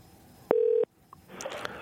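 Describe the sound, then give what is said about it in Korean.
A single loud telephone dialing beep as a call is placed to a listener, a steady electronic tone lasting about a third of a second, followed by a short silence and then faint rustling background noise. “몽골 에피소드인데 어떤 게 운이 좋았는지 6679님 전화 한번 걸어보겠습니다. 자, 걸어주세요.”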